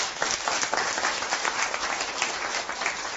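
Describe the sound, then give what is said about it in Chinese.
An audience applauds to show they have understood the speaker's point, a steady, dense, even wash of many hands clapping at once with no voices standing out and no clear break in the noise. “能听明白的掌声再告诉我”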